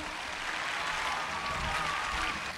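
Steady audience applause as a performer comes out on stage, a dense wash of many hands clapping at an even level throughout, with no distinct individual claps standing out and no talking over it.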